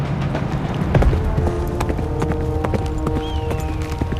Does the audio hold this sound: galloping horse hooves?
yes